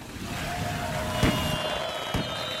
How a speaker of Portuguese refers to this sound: E agora, por favor, um pouco de fogo de artifício.